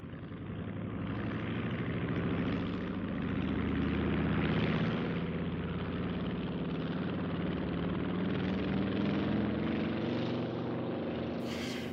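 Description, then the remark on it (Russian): A Kittyhawk propeller fighter plane's piston engine roars steady for the whole stretch as it starts up and takes off from an airfield, its throbbing drone swelling slightly as the power builds, with no voices. “И тут же он, значит, запустил двигатель и взлетел.”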